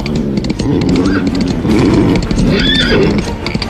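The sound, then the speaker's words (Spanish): A horse whinnies loudly, its neigh rising and wavering, while hooves clip-clop in a steady rhythm underneath throughout, as Sigurd and his followers ride home after a battle. “Y cabalgaron a casa vanagloriándose de su victoria.”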